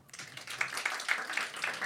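An audience breaks into scattered applause in answer to a question whether there are many vegetarians in the room, many hands clapping in a dense, crackling wash that stays at a moderate, steady level throughout without any talking.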